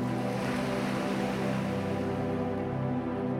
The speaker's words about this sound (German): Hörst du die Wellen an das Schiff donnern? Riechst du den weiten Ozean?